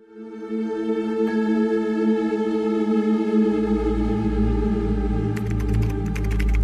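Quick, irregular computer keyboard clicks patter in near the end as computer code is typed in a windowless room with a bank of computer screens, partly buried beneath a loud, sustained droning musical chord and a deep rumble.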